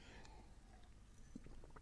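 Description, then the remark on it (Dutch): A quiet sip of water, with soft wet mouth sounds and small swallowing clicks, ending in a brief sharp noise; no one speaks. “Sorry, even een slokje water.”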